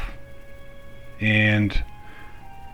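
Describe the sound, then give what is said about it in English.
Faint, steady telephone hold music from the Department of Labor and Training in Rhode Island, U.S., hums in the background throughout, sustained tones sitting low beneath a short burst of a man's voice in the foreground. “if you hear music in the background right now, that's because I'm on hold with the Department of Labor and Training uh, in the state of Rhode Island here in the U.S.”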